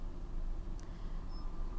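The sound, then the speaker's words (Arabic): A steady, low engine rumble of idling and slow-moving cars in a traffic jam, continuous, with one brief faint click partway through and no voices. “هذا المقطع هو مقطع صوتي لا غاية منه أبدا ما في منه أي غاية أنا قاعدة أسجل في وسط زحمة مرورية”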